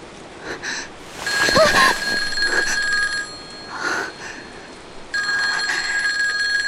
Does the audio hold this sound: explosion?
no